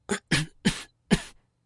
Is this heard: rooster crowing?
no